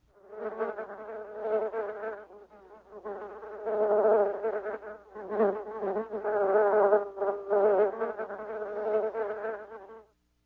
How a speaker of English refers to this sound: Bees buzz.